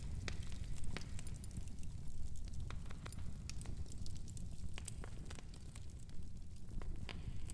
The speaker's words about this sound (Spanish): que alimenta tu hoguera va consumiéndose lentamente. Cada vez es más débil.